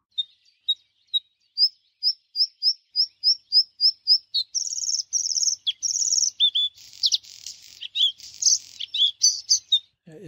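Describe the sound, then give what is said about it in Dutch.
A bluethroat sings alone, starting with a row of evenly spaced single chips that speed up, then breaking into crackling, buzzy stop-start phrases of varied notes. “Het is een knisperen en horten en stoten komt het op gang.”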